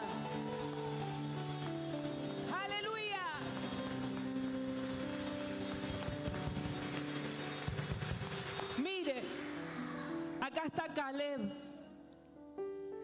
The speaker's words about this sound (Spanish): Dele ese fuerte aplauso, vamos, celebre esta palabra.